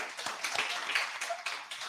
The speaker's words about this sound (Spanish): Pues un pues aplauso de nuevo para la regidora.